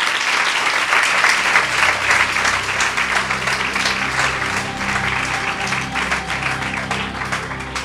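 An audience applauds guests on the Despierta UMH university radio programme, a dense wash of many hands clapping at a loud, even level that fades slightly toward the end, with no one speaking over it.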